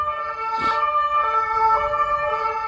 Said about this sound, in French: Alors, vous l'entendez probablement le bordel autour de la maison. Il y a des pompiers et tout.